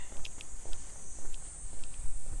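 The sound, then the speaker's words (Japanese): Cicadas drone at night in a steady, high-pitched buzz that never lets up, with faint footsteps crunching along a dirt path. “夜も夜はセミは鳴くんだね”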